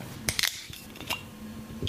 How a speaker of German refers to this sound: So, wir machen mal eben den Korken auf.